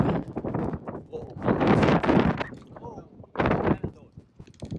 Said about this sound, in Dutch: Uh, het waait. Het waait.